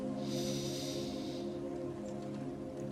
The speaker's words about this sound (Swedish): Så vi börjar som man alltid gör i min värld med att landa på platsen i form av att ta några djupa andetag så andas in genom näsan